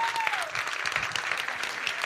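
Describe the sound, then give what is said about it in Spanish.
A church audience applauds the fathers on Father's Day, with dense, steady clapping that holds at an even loudness for about two seconds and a brief falling whistle-like tone at the very start. “La idea es que por lo menos cinco o seis veces les demos aplausos, les digamos feliz día del padre.”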